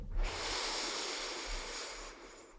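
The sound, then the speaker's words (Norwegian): A slow, steady breath drawn in through the nose on a count of three during a breathing exercise, a soft airy hiss lasting about two seconds, heard alone without any talking. “Og så begynner du med å ta et enkelt innpust inn gjennom nesen, så du puster inn på tre.”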